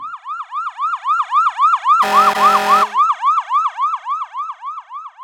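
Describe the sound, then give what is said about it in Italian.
A fire truck siren wails in fast, repeating rising-and-falling sweeps, loud, with a brief blaring horn blast cutting in partway through. “Immaginate di dover ascoltare una poesia, recitata da una vostra amica a pochi metri di distanza da voi, in un parco e che proprio in quel momento passi un camion dei pompieri con le sirene spiegate.”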